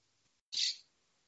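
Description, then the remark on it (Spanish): A pet parrot in the room where someone is recording lets out a single sharp, shrill squawk, lasting under half a second, with near silence before and after. “El loro que es que no falte, estoy por moverme y todo.”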